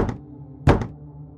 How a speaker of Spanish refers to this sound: Minutos después, escuché tres golpes pausados en la puerta de la casa donde nos quedábamos.